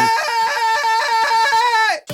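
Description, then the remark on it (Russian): A band's signature group scream, repeated on request, holds steady and high-pitched for about two seconds, loud, then cuts off abruptly into a brief burst of noise. “И, в общем, вот этот фирменный крик, друзья. Давайте еще раз повторим, пожалуйста.”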